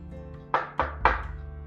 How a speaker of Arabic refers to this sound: حمرا حمرا زاد شوية ودق الباب